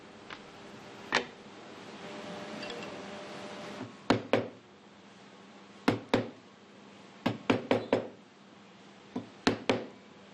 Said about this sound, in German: Die Eckverbindung für die Schublade fertigt er in Schwalbenschwanztechnik. Die keilförmigen Zwischenräume muss er jetzt ausstemmen.